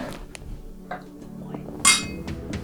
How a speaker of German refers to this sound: Und ähm, ob du willst oder nicht, wir stoßen jetzt nochmal an.